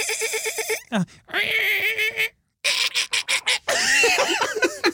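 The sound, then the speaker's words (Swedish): Voices imitate a dolphin with high squeaky whistles, rising and falling chirps, and rapid clicky bursts, broken by short pauses across several seconds. “Kan, ni killar göra delfinljud?”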